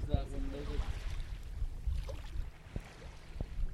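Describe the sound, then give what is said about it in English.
A net being lowered into lake water, with soft sloshing and a few knocks against a small boat over steady wind and engine rumble, faint voices murmuring in the background. “So they're dropping it down into the water.”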